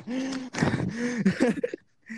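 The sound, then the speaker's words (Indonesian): A person gasps for breath, a run of strained, voiced gulps of air in quick succession, trailing off briefly before another breathy intake. “Lupa lupa nafas, lupa nafas sorry.”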